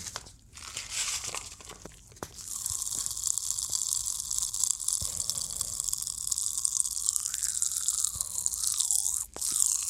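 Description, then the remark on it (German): Popping candy tipped into the throat crackling as it is eaten, a dense, continuous fizz of tiny snaps and crunches with faint wet chewing sounds, steady and moderately loud, no voices. “Das kippt man sich in den Hals und dann fängt das an im Hals zu explodieren.”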